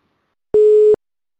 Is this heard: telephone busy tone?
yes